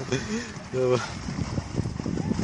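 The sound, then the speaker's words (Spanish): A small boat moves across a lake at Parque Bicentenario in Metepec, with steady rushing wind and water noise. Brief voices break through near the start. “Viaje en lancha en el Parque Bicentenario de Metepec”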